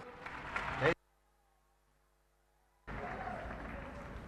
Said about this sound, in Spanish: Un aplauso.